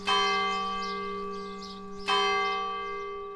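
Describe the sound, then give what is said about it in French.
A church bell strikes twice at night, about two seconds apart, each deep, resonant toll ringing out and slowly decaying. No voices or other sounds accompany it. “Quand j'avais acheté la maison, et quand j'ai dormi la première nuit, à ma surprise, j'entendais les cloches la nuit.”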